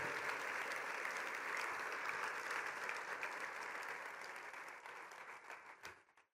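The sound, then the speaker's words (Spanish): A crowd of people claps steadily and densely for several seconds, applause given for Jesus during a sermon, fading out near the end with a few last scattered claps. “Vamos a dar un aplauso a Jesús, nuestro intercesor eterno.”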